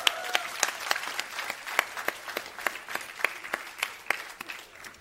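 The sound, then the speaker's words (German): A small live audience claps for about five seconds for a young woman, the hand claps sharp and slightly uneven and moderately loud, with no one speaking over it. “Ein kleiner Applaus für die junge Frau.”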